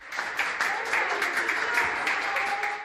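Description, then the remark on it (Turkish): A crowd applauds steadily, many hands clapping in a dense, continuous patter with a faint murmur of voices underneath, as a nurse who caught coronavirus while working is discharged from hospital. “O da alkışlar arasında taburcu olurken gözyaşlarını tutamadı.”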